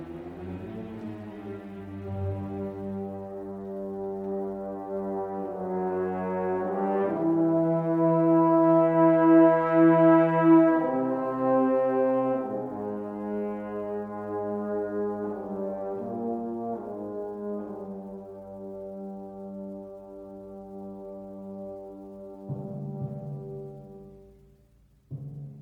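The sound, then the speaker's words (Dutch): Slow, heavy orchestral music from the last act of Wagner's Götterdämmerung, the end of the Ring des Nibelungen, with long sustained brass-like chords that swell and shift in pitch, building to a loud peak midway before easing back. No talking is heard. “Maar ik heb nou toch maar even een stukje uit de Uit de laatste akte van Götterdämmerung van Wagner laten horen.”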